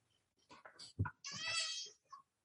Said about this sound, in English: Oh, shut up, cat.